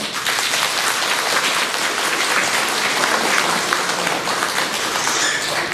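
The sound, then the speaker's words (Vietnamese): A big round of sustained audience applause at a morning Buddhist dharma talk for the Vietnamese community in London, a dense wash of many hands clapping at a steady, loud level for several seconds with no voices standing out. “xin dâng cao một tràng pháo tay thật lớn”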